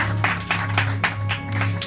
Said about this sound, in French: On peut vous remercier, on peut applaudir le soleil.